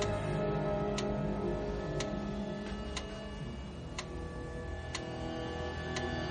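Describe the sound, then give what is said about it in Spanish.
A metronome on a bedside table ticks steadily, about seven sharp, crisp clicks spaced roughly one second apart over a low, constant hum, with no voices. “El metrónomo suena en la mesita de noche.”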